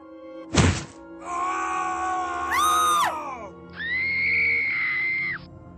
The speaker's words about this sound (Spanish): Escuché un golpe en la parte de abajo, seguido de un grito y dos chillidos. Era un grito de mi padre, un chillido de mi hermana y otro chillido de mi madre.